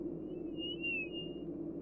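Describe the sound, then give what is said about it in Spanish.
A thin, high whistle rises and wavers for about a second above a steady, low background rumble, heard at midnight at the door of a huge house and echoing in it. It sounds faint rather than loud, with no speech. “Mi madre cuenta que antes de cruzar la puerta, escucharon un chiflido muy fuerte que hizo eco en la enorme casa.”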